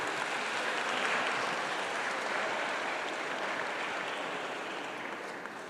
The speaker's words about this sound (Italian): Cioè quelli della parte destra vengono applauditi, quelli della parte sinistra no, poi mi spiegherete questo mistero.